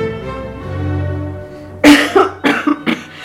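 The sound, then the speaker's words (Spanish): A short burst of dry coughs, four or five sharp hacks in quick succession after a low murmur of background hum, fairly loud. “Una tos seca interrumpió la malhumorada respuesta.”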